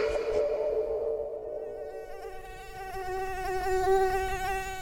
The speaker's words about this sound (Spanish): Todos hemos sufrido en carne propia los embates de los mosquitos.